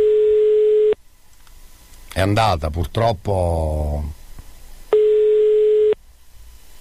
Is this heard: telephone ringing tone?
yes